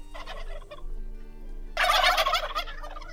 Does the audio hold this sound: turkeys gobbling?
yes